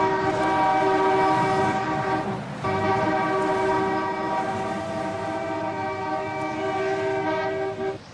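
Loud car horns blare in a long, steady chord as listeners honk together on a count of three, cutting out briefly before sounding again and holding on for several seconds, continuous with no talking.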